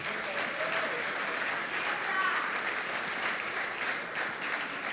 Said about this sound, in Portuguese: Palmas para esses meninos aqui, vai lá.